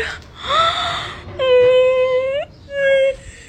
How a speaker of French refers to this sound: elle partage ses coups durs, elle se filme souvent en pleurs, par exemple lorsque elle se fait casser sa voiture ou lors de ses nombreuses péripéties.